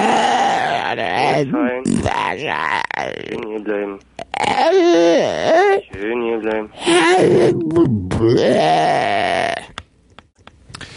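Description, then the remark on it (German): A man loudly imitates drunken bawling and groaning, with long, wavering, slurred howls and grunts over about ten seconds, a few garbled words mixed in, broken by brief pauses. “Ja, aber du hast jetzt, du hast bei dem ganzen Gegröle von diesem ja. Betrunkenen hat dein Hund dich überhaupt nicht verstehen können”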